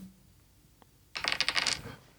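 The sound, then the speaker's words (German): Dice are rolled for a round of a game, clattering across a hard surface in a short, rapid burst of small knocks and rattles, loud, then settling after under a second. No one speaks. “Dann würfel ich jetzt einmal eine Runde und zwar für, äh, für Flo erstmal.”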